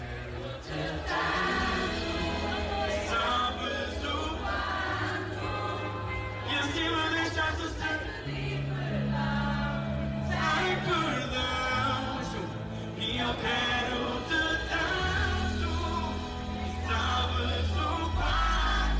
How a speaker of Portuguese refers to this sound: um vídeo que o Ciro partilhou de um concerto onde as vozes se elevam para entoar o refrão da música